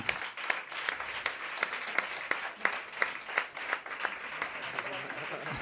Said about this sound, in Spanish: está acercándose al escenario del Café La Palma y también recibe el aplauso del